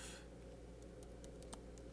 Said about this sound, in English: I'm just typing it on my computer because uh, I didn't pull up yet.